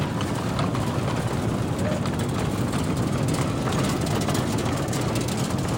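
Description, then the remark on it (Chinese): A small coal-mine train, carrying a visitor from Sanxia, is driven toward the listener at the New Pingxi Coal Mine park in Pingxi on a rainy day; it rumbles along with a steady, dense mix of low engine drone and rattling clatter, holding an even loudness throughout with no voices. “接着看到有人开着一辆矿场的小火车朝我开过来，”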